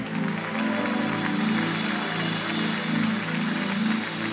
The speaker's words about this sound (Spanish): Si ese aplauso es para el Señor, lo podemos hacer mejor.